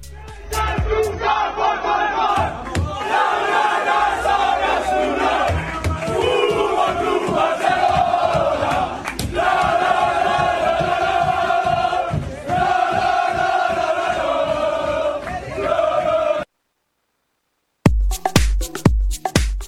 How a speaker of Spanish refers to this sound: audio de la celebración del vestuario del, del Fútbol Club Barcelona, de esa victoria tan importante pero sufrida del conjunto de Xavi Hernández que se marcha líder tras eh, se marcha líder eh, con, al, parón del, al parón del Mundial. Lo escuchamos.